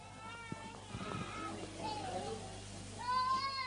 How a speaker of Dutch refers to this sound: Ik hoor iemand nee heel hard roepen.